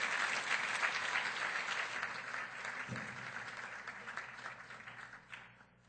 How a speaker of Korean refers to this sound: Por favor, déles un aplauso.